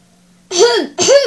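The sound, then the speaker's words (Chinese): A voice imitates clearing its throat in two quick voiced bursts, a rising-then-falling ahem sound, loud and alone after a moment of near silence. “这时，动物中的长者大象咳嗽了一声”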